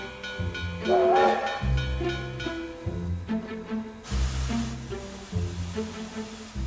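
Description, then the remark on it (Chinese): A steam train pulling into Dierpu station: a loud, rumbling chug in repeating bursts, a high whistle early on, then a broad rush of hissing steam. No one speaks. “一直到双手抱头，陷入沉思，直到火车抵达第二埔站，他都动也不动。”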